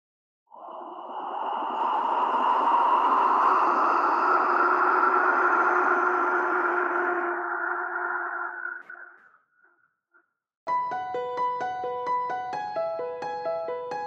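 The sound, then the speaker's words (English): A breathy, airy whistle swells and sustains for several seconds with a rushing, wind-like tone, then fades away, followed by a short gap before bright plucked musical notes begin. “Could I blow the wind whistle for those people at oh, home?”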